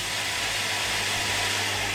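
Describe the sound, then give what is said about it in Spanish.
A steady, unbroken mechanical whir like a power drill running, with a low motor hum beneath a broad hissing buzz, holding the same level throughout with no voices. “¿Está con un taladro?”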